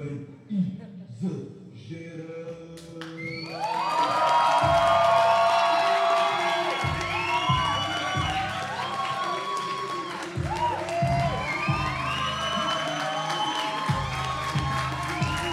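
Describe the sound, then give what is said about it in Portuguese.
A large crowd on its feet cheers loudly to welcome the next guest, with whoops, shouts and clapping swelling after a quieter first few seconds and then holding as a dense, sustained roar. “Recebam de pé e com com muito barulho”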